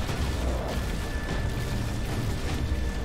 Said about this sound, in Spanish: Explosión de este cadáveres, una barbaridad.